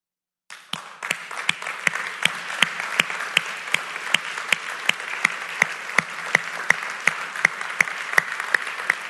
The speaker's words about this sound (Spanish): Así que si ese eres tú, el día de hoy, yo te voy a pedir que te pongas de pie y nosotros te vamos a aplaudir y vamos a reconocer tu valor.